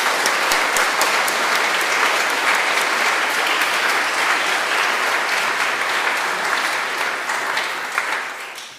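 Sustained applause from a crowd, a dense steady clatter of many hands clapping at an even loudness for several seconds before tapering slightly at the end.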